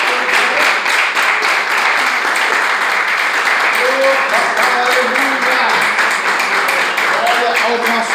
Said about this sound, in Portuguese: Essa é a palavra que o Senhor colocou Glória no meu coração e as palmas que adoram o Senhor Jesus.